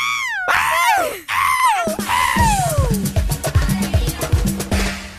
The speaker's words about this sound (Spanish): Un grito de alegría. A ver. Otro. Uno más.